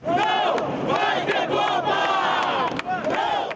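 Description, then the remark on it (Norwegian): A crowd of protesters at a demonstration in Rio, Brazil, before the football World Cup chants 'There will be no World Cup' loudly in unison. Their voices rise and fall in a repeated rhythmic slogan with sharp accented beats, sustained throughout without pause. “Det blir ikke noe VM, roper deltakerne i en demonstrasjon her i Rio denne uken.”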